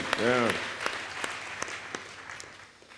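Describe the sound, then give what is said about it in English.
Applause from a church audience, a dense patter of many hands clapping with a brief voiced shout at the start, gradually thinning and fading over about three seconds. “Un pile applaudissement matin.”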